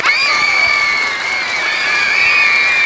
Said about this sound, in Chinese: 太厉害了，应该给你一个掌声啊！我们一定要给个掌声。